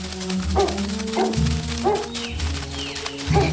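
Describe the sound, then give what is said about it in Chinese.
A dog chasing after animals barks about five times at uneven intervals, sharp and fairly loud, over a steady low humming drone that runs underneath the whole time. “小猫和小兔手拉着手一起逃跑，可狗跑得更快，已经越来越近了。”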